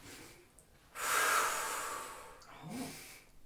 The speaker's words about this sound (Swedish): Vill du känna här hur jag gör? Mm. Kolla här. Mm. Nu andas jag in.